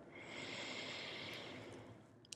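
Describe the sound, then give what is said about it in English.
A single long, airy inhale drawn in steadily through the nose or mouth, soft, lasting a couple of seconds with no talking. “If you're just plugging in, if you're just listening, you're popping in your headphones, you're pressing play, you're in your car, let's just take a big deep breath in together.”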